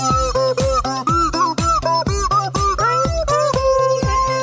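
A squeaky rubber chicken honks out a bouncy, funky old-school tune, its pitched squeals coming in quick rhythmic bursts, loud, with no talking.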